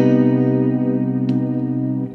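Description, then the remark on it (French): A sustained electric guitar chord rings out with a washy reverb tail, holding steady at a fairly loud level with one brief pluck partway through before fading slightly at the end. “Je vais nous mettre un peu de reverb pour, euh, pour un peu plus de swag.”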